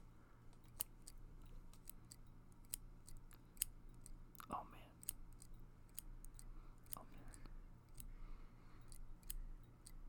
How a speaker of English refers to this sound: I'm actually gonna cut …'s beard right here on the podcast we go. I got a pair of scissors.